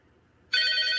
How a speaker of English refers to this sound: Hey, phone's ringing.